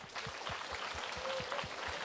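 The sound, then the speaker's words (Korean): A crowd breaks into steady applause for the final-year high-school students, many hands clapping together in a dense, continuous patter with soft, regular low thumps running underneath through the full two seconds. “우리 고삼 언니들 위해서 한번 박수 한번 하십니다.”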